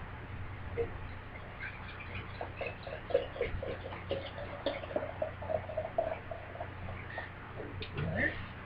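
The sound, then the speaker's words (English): Pitch-black stout beer poured from a growler into a glass, a steady stream of liquid with bubbly gurgles and small clicking glugs over a low background hum, rising in pitch as the glass fills near the end. “And the pour.”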